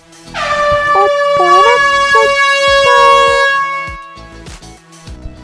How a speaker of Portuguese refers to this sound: E pode soar a buzina que esse episódio já está começando.